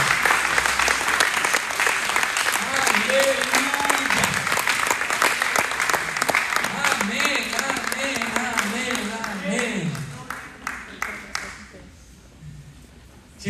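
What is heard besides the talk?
audience applauding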